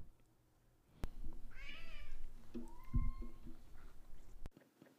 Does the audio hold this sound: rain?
no